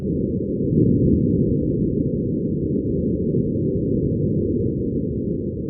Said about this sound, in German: Da gibt es einige Teleskope wie etwa Hubble oder Webb, die schicken sensationelle Fotos und Geräusche aus dem Weltall in unsere Wohnzimmer.